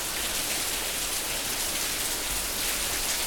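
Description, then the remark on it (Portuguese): Steady rain falls throughout, a dense, even hiss of countless drops spattering on a surface, moderately loud and unbroken, with no voices. “Não dá nem pra confiar na chuva, nem minha chuva dá pra confiar hoje em dia, pô.”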